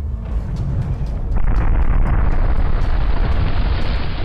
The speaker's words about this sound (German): Dabei wird Wasser im Untergrund durch Magma oder heißes Gas so aufgeheizt, dass es zu einer plötzlichen Dampfexplosion kommt. Das Wasser verdampft schlagartig und sprengt sich seinen Weg zur Oberfläche frei.